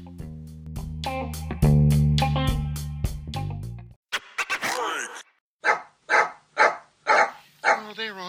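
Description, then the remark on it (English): A dog named Simba barks about five times in a steady, evenly spaced run, loud, following several seconds of sustained, buzzy tonal sounds. “with special guests Simba, the dog”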